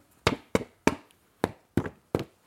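Knocking on a wooden door in a children's story, friends knocking at Petite Taupe's door for her birthday: two sets of three firm knocks with a short pause between, each a sharp hollow rap that fades quickly, with no voices.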